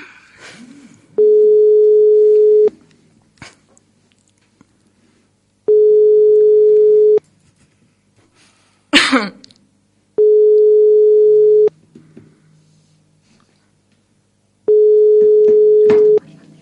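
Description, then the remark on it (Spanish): A telephone ringing tone heard while a call is placed from a radio program: four steady, mid-pitched beeps, each about a second and a half long, separated by longer silences, with a few faint clicks in between. “bueno, venga, llamamos.”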